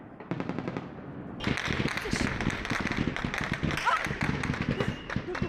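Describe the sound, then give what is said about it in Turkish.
Rapid bursts of automatic gunfire are fired over a crowd on the night of 15 July 2016, during the coup attempt. Sharp repeated shots crackle continuously over shouting and crowd noise that rises suddenly after a brief quieter opening. “Şu anda kalabalığın üzerine ateş açılıyor.”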